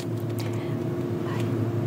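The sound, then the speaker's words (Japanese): A large plug-in hybrid (PHEV) car, a little over 2 metres wide, quietly starts to move after being put into drive mode. It gives a steady low hum and soft whir with a faint tonal drone, even in level, with no talking. “今ね動いたんですよ静かじゃないですかおおシュルシュルシュルシュルっと”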